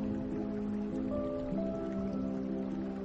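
Light rain begins to drizzle as a thunderstorm approaches, in a steady, even hiss throughout, blended with sustained low tonal notes like a soft musical drone, with no talking.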